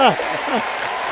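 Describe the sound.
A short burst of clapping, a steady patter of several hands, with a voice speaking over it at the start.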